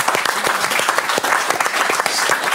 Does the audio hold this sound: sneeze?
no